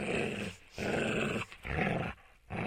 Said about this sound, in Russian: Снал – это рычать. Такой звук обычно э, кем, да, производят собаки, когда э, скалятся и рычат на кого-то.